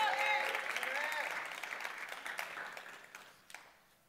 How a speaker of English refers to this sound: And as I close today, amen. Y'all can clap, give him a hand clap of praise.